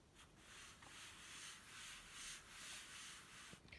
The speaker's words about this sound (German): Das ist ein richtig gutes Mausbett. also nicht richtig, also ist einfach ein gutes Mausbett, was ich hier drunter habe, aber es reibt richtig krass.